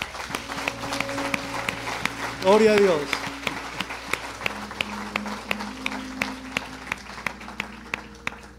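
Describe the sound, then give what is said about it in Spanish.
An audience applauds the Lord with steady, scattered clapping that fills the whole stretch, while a voice calls out briefly over the applause partway through. “Vamos a darle un aplauso al Señor por eso.”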